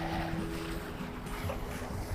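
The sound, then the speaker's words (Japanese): Ocean waves at the seaside make a steady, continuous wash of noise with a low rumble underneath, heard from the shore with no one talking. “波の音聞こえますかねこれこんな感じでまあ、ただの海なんですけれども”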